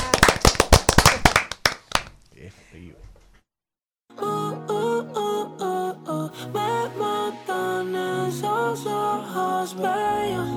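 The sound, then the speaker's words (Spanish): A loud, brisk burst of applause on a Cool 106.9 radio broadcast lasts about two seconds and fades away, followed by a short silence before melodic music starts. “Así que gracias. Un aplauso.”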